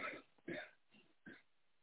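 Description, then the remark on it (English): A few harsh coughs and throat clearings come in short irregular bursts, the first two loudest, with brief quiet gaps between them. “But girl, I was over here coughing so hard”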